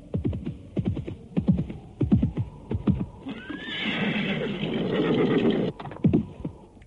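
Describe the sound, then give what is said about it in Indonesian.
A horse, spurred on from the direction of Bukit Kurawan hill, gallops in with rapid, rhythmic hoofbeats growing louder, then lets out a long, loud neigh before the hooves resume. “dari arah Bukit Kurawan muncul kuda yang lain. Kuda itu terus dipacu makin dekat.”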